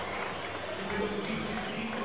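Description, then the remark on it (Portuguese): A large stadium crowd applauds as player Jusilei is announced in the team line-up, a dense, continuous wash of clapping and cheering noise that holds at an even level for about two seconds, with murmuring voices blended in. “Muito aplaudido, merece.”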